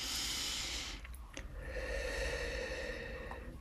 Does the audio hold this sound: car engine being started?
no